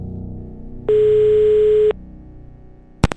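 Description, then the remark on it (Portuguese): A single steady telephone ringback tone of an outgoing call to film critic Pablo Vilaça of Cinema em Cena sounds for about a second over a faint background hum, followed by quiet and then a sharp click near the end, like a line being picked up. “Então a gente vai ouvir o Pablo e, e vamos ligar para ele a partir de agora.”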